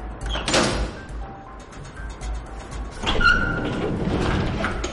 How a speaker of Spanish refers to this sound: Alonso abre una puerta escondida.